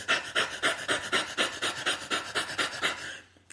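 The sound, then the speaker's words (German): A voice imitates rapid, rhythmic panting as during rising sexual arousal, about a dozen quick breathy huffs in steady succession, fairly loud, fading out at the end with no other talk. “Wenn du am Masturbieren bist und du erhöhst deine Erregungskurve und wirst immer erregter und dann fängst du an so zu hecheln, so”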